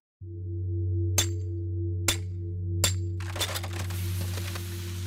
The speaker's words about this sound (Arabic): هذا صوت أنبوب إمداد الحليب بإحدى المزارع الأمريكية وقد كسر عمدا كي تنصرف كميات الحليب الطازج إلى مصارف النفايات بينما وقف العامل يراقب انتهاء العملية بملامح جامده